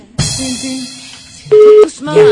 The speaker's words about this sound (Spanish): No, no, ese es cuando se va la señal, se corta y después suena así.